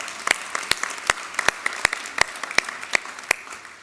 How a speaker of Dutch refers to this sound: Vorige week hebben we het offer opgehaald voor Oekraïne. En ik ben super dankbaar en ook trots met elkaar dat ik mag zeggen dat we ruim 6200 euro hebben mogen overmaken. Ja, dat is een applaus waard, ja.